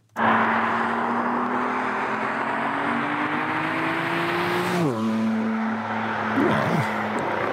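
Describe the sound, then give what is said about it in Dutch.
A BMW M4 CS sports car engine accelerating hard, its steady drone climbing in pitch before dropping sharply with a gear change, then pulling on again, loud and continuous throughout. “En we rijden met de BMW M4 CS.”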